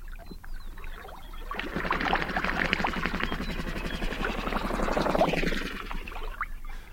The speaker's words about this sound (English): That's the name Lang Elliott and Ted Mack gave this recording they made of birds in, around, and above a migratory watering hole near Crescent Lake National Wildlife Refuge in Nebraska.